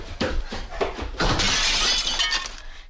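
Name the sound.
antique mirror shattering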